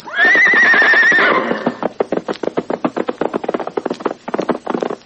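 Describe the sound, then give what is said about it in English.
A white horse lets out a loud, quavering whinny, then its hooves pound in a fast, steady galloping rhythm as it dashes ahead. No one speaks. “New adventure was ahead, and with a shout of defiance, he leapt the hills to dash ahead.”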